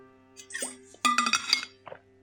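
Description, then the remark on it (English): Someone drinks water from a glass: bright clinks of glass against teeth or a surface, followed by soft wet gulping and a small plop, with no talking. “I've drunk like 100 cl of water already.”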